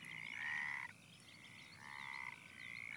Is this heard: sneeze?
no